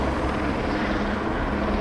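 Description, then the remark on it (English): A large helicopter roars steadily overhead, its rotor and engine noise a loud, continuous rumbling wash that holds constant throughout, with no voices. “You figure in this day and age they'd be using drones instead of big helicopters.”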